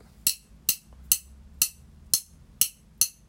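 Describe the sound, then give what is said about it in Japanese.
Seven sharp, bright taps on the glass side of an instant coffee jar, struck one after another at a steady, slightly uneven pace. Each tap rings briefly and clearly, with no talking. “で次はえー、インスタントコーヒーの瓶それは蓋はこんな音ですねで側面はガラス”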